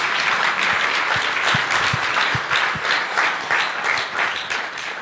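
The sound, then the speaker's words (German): Sustained audience applause, a dense wash of many hands clapping at steady loudness for several seconds, with a few sharper individual claps standing out. “Und da kann man sich einfach nur, ja, genau, Applaus.”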